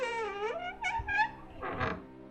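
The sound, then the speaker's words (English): A long, wavering creak of a door being stomped open in an inn hallway, sliding up and down in pitch and ending in a rougher groan, apparently imitated by a voice, fairly loud. “The innkeeper walked halfway down the hall and stomped open one of the doors.”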